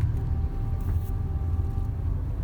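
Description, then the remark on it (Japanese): Steady low rumble of a car cabin while driving, a constant road and engine drone filling the lows with faint hiss above, no voices and no distinct events. “今、まあ、車の運転しながら、まあ、録音しているところなんですけども、まあ、車の運転中なんで”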